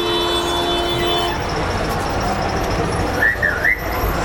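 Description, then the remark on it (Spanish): Loud, steady outdoor street ambience in Mexico City, recorded on a portable recorder set to high sensitivity: a dense wash of traffic rumble with a sustained horn-like tone early on and a few quick high chirps near the end. No one speaks. “Ahorita van a escuchar muchísimo ruido, porque está en la sensibilidad alta.”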